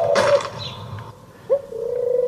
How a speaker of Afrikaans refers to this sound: En nou het die duif gehoor, so kom ons maak hom 'n bietjie sagter.